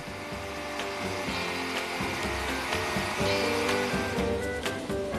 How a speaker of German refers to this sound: Hier zur Verdeutlichung. Der Föhn erzeugt künstlichen Wind und damit Wellen.